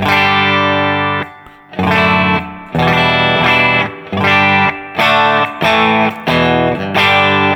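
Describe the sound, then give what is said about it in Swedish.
A loud, distorted electric guitar, run through a Benson Tallbird pedal into an amplifier and a Captor X with a 4x12 cabinet simulation, strikes thick sustained chords in about six rhythmic bursts separated by short gaps, with no one talking. “och det här är då 412 som sagt var. Jag ska byta till, den låter så här.”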